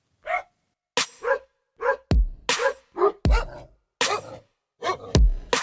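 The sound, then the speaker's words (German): A dog barks loudly, about a dozen sharp barks in quick, uneven bursts with short pauses between them, and no one speaking. “Und der bellt ganz laut und er weckt uns alle auf.”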